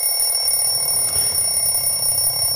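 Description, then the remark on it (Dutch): A bell rings continuously and loudly for the whole stretch, a bright, shrill metallic clatter with steady high-pitched tones and no voices. “Ja, die bel dat is eigenlijk morgenavond tegen middernacht pas.”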